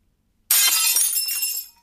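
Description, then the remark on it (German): The front glass pane of a kitchen door shatters with a sudden loud crash, followed by a bright, jangling spray of breaking shards that rings on for over a second before fading out. “Die Frontglasscheibe war kaputt.”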